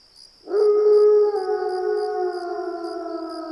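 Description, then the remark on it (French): A single long, loud howl in the mountains rises quickly, then holds for about three seconds while its pitch slowly sinks. A faint, steady high-pitched chirring continues in the background throughout. “Puis ce fut un hurlement dans la montagne.”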